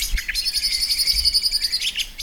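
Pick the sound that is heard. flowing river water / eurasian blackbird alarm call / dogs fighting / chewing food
eurasian blackbird alarm call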